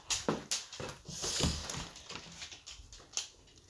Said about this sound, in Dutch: Het geluid wat je nu hoort, dat is mijn hond. Ja, die heeft ook weer wat eh, te vinden. Kom maar, kom maar even naar buiten.